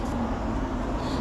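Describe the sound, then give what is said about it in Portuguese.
Steady low roar of road traffic from a nearby avenue, heard while walking beside it. A continuous wash of engine and tire noise, with no distinct single vehicle standing out. “Basicamente, eu, agora eu estou andando, vocês podem ouvir os carros aqui passando, eu estou perto de uma, de uma avenida”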